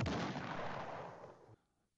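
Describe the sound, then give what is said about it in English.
A single explosion sound effect: a sudden sharp blast followed by a rumbling, hissing decay that cuts off abruptly after about a second and a half. Loud, with no voices. “I still like the explosion one, even though it sounds like a ping pong ball.”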